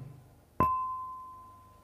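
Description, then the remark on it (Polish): A small gong is struck once, giving a sharp attack followed by a clear, steady ringing tone that fades only slowly over the following second and more, with no voices. “Najpierw będzie mały gążek, uwaga”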